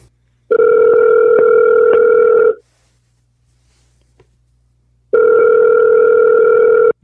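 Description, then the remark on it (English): Two long ringback tones of an outgoing phone call, each about two seconds with a steady electronic pitch and a silent pause between them, loud and clear with no one talking. “Call him back.”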